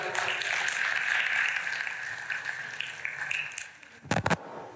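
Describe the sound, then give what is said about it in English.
A crowd applauds the speaker's assistant steadily, a dense, even patter of many hands clapping that slowly thins out, followed by a few sharper, louder claps at the end. “Big round of applause for my”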